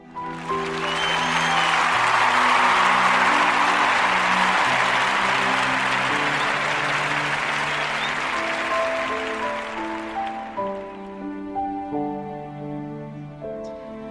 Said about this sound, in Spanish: Por eso, estos aplausos van para ti.